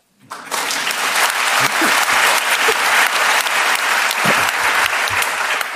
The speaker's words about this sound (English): That second bit of applause doesn't come out of my allotted time, does it?